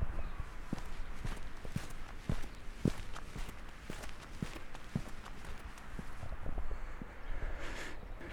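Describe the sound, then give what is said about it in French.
Steady footsteps thud across wooden seaside boardwalk planks on the beach at Trouville, next to Deauville: a regular walking rhythm of hollow knocks, with faint outdoor background noise and no talking. “Ah, vous entendez euh, les planches Ça vous dit quelque chose”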